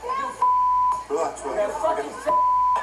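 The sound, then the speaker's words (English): Two steady, loud censor bleeps, each about half a second long, cut over a woman's profanity, with a short stretch of talking heard between them. “she, called them gay, and every time they beep, beep, beep, she called them the F word, F A G.”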